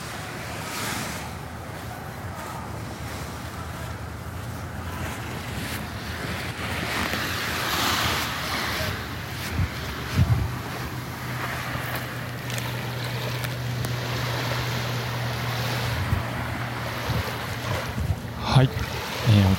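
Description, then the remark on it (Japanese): Waves wash steadily onto Naminoue Beach, a small beach in Naha, Okinawa, Japan, within walking distance of Kokusai Street, in a broad, continuous surge, with gusts of wind buffeting the microphone and a low engine-like hum joining partway through. “沖縄らしい、ね、ちょっと波の音が聞こえてきましたけれども、はい、これはどこのビーチですか、あの波の上ビーチっていうんですけれども”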